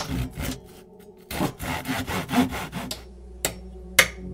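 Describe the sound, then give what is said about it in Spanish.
Steady rasping and scraping of wood as a boat is built by hand from barrel planks in a basement, in uneven bursts, ending with two sharp wooden knocks. No one speaks. “La pequeña Alice estaba apoyada en una pared mirando a John, mientras su hermano fabricaba un bote con tablas de barril.”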